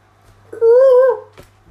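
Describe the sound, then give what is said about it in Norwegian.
A person's voice imitates a peacock with one loud, drawn-out wailing cry lasting about half a second, followed by a brief faint click and quiet. “Det var påfugl.”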